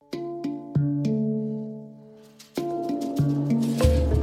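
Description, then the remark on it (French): A short musical break jingle on RZN Radio: a few bright struck notes ring out over sustained chords, pausing briefly before a fuller, busier ending. No one speaks. “On en parlera euh, juste après une petite coupure musicale.”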